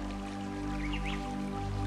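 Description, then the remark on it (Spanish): Water from a fountain flows and splashes steadily through its various outlets, a continuous wash with small drips and bright splashes on top, plus a low steady hum underneath. No one speaks. “Solo observo un suministro ilimitado de energía a través del agua, que fluye a un ritmo constante, envolviéndome con su sonido”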